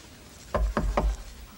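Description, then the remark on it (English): Three firm knocks on a wooden door in quick, even succession, solid-sounding, with a low thud to each rap and no voices; a woman knocks at the door. “She knocks.”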